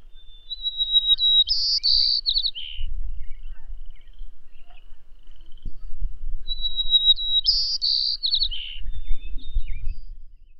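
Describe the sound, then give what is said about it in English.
A white-crowned sparrow in Manitoba, Canada, sings its song twice, each time opening with a clear whistled note that breaks into quick buzzy, trilled phrases, clear over a low background rumble. “Here's a white crowned sparrow in Manitoba, Canada.”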